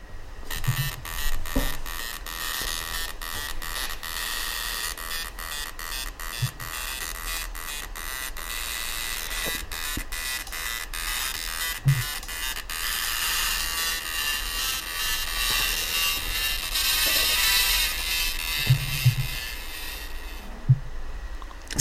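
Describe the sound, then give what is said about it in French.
Jingle music built from the noises of an old-model printer: a steady whirring, buzzing motor drone with sharp rhythmic clicks and clacks repeating like a beat, loud, with no voices throughout. “c'est une musique faite avec, une imprimante.”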